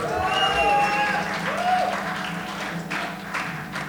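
A crowd applauds with steady, dense clapping across the whole stretch, mixed with a few cheers and whistle-like tones early on.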